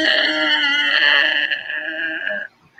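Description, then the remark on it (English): A rusty winch chain grinds with a loud, sustained high-pitched squeal as the winch is cracked loose and the tires are lowered, at night in drizzling rain in Florida, holding steady for about two and a half seconds before abruptly cutting off. “You hear the rust just grinding on that chain.”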